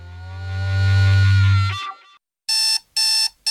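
A low humming tone swells and fades, then after a short pause an alarm clock starts beeping loudly in quick repeated bursts, with no voices.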